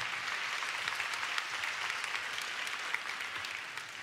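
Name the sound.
audience applauding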